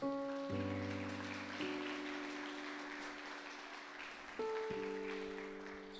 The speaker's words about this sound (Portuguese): E dê uma salva de palmas à palavra de Deus.